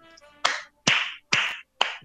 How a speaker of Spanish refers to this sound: Ah, ah pero aplaudiste. Porque me pareció una gran idea.